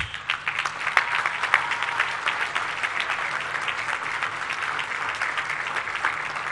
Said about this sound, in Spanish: Creo que esta obra, como se ha dicho, es la suma de voluntades y reconocemos lo que han hecho los trabajadores de la construcción. Un aplauso para ellos.